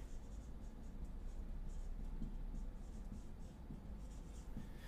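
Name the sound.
pen writing on paper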